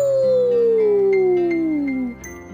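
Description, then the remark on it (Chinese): At dusk, a wolf answers from not far away with one long, loud howl that slides steadily downward in pitch for about two seconds before breaking off, with a low steady drone beneath it. “紧接着，在不远的地方也响起了回应的声音，嗷呜！”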